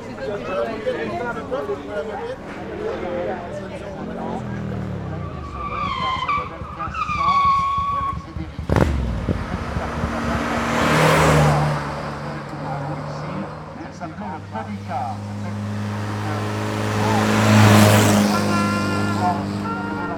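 Race cars roar past at a hill climb race in Chanteloup-les-Vignes in 2011, engines rising and falling with sharp gear changes and a brief tire skid, the loudest car passes swelling before fading away.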